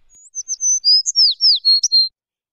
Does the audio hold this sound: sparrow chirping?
yes